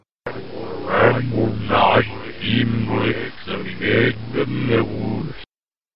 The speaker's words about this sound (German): wenn du da dem finalen Boss in der Hölle gegenübertrittst, dann spielt der auch ein umgedrehtes Sample und das hört sich so an.